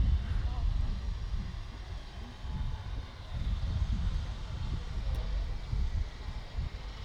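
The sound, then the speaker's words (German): The motor of a small river boat with colourful pennants and a German flag at the stern rumbles low and steady as it approaches, its deep drone pulsing slightly under a wash of wind noise. “Jetzt hören dafür, wir uns mal das Boot da, an. Dafür kommt ihr jetzt das Boot hier an. Ein kleines Flussschiff mit bunten Fähnchen und einer Deutschlandflagge am Heck.”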